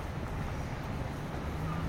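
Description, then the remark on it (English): Outdoor ambience on the river Moskva: a steady rush of wind buffets the microphone while a boat's low engine drone hums underneath, continuous, with no voices. “so, this is the river Moskva and uh,”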